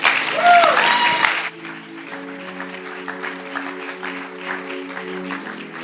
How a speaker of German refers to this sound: Sie wird mit einem tosenden Applaus begrüßt.